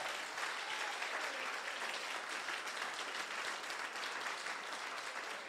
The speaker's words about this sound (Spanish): Si usted lo cree, den un aplauso fuerte a Jesús.